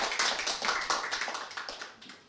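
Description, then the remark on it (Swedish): An audience in a dining hall breaks into applause, a dense, steady patter of many hands clapping at once that holds for a couple of seconds before thinning and fading slightly at the end. “En applåd!”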